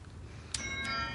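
A doorbell of a fifth-floor apartment chimes twice in quick succession, two bright ringing tones that linger and overlap against a low, steady background hum; no one speaks.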